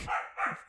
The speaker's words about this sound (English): I so apologize for the dog in the background